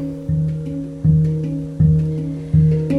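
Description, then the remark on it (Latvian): Hang drum music from a 2015 recording: four resonant struck notes at a slow, steady pace, each ringing out with a warm, sustained metallic tone that fades gently before the next, with no voices. “to vairs Vīdas Freibergas dainas un arī Henga skaņas dzirdēsim maz fragments no 2015. gada”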